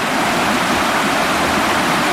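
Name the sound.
flowing river water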